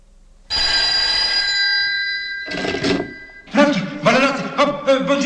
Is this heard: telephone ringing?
yes